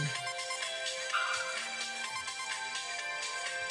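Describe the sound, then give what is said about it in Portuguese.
A telephone ringtone plays continuously, a bright repeating electronic melody with steady pulses, moderately loud, with no one speaking over it. “Oi, Ah, é o telefone aqui que está tocando.”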